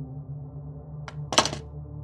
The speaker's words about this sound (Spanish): Cerca de la mitad escuché un golpe seco desde el pasillo, algo así como el de una escoba cayendo al suelo.